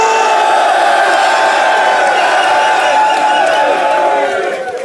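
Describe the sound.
A crowd cheers and yells loudly and continuously for the winner of a title match who has defended his belt, a dense wall of shouting voices and whoops that holds steady for several seconds before easing slightly at the end.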